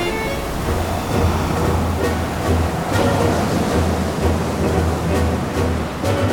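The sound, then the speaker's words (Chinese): A stormy sea roars steadily, heavy waves surging and crashing in a dense, rumbling wash of noise, with occasional sharper splashes breaking through the continuous low churn. No voices. “举起了双手，一直猛烈地拍打着海浪，让大浪波涛汹涌。”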